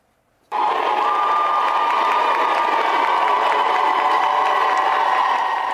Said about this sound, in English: A crowd of supporters cheered the lawmakers on as they walked into the chamber for that historic vote yesterday.